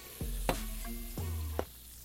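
Tonic water is poured into a drink in two short bursts, each with a hollow, rising glug and a soft fizzing hiss, plus a couple of sharp clinks. It is fairly quiet, with no voices.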